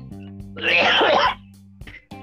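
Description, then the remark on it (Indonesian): A single loud cough bursts out harshly for under a second, then fades to quiet with a faint steady hum in the background. “Lu yang batuk”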